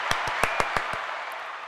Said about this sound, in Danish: Det er det, det er altså imponerende. Kom så. Skal altså, jeg klappe for, det, Og det er... Øh, sådan der. Ja. Nej, det fortjener det sgu.